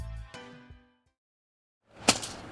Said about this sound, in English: Hear that? It's the sound of someone whacking the ground with a rake.